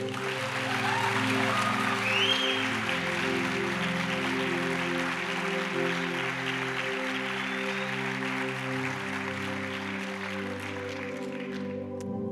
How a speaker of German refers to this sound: Das ist dein Applaus. Vielen Dank fürs Erzählen.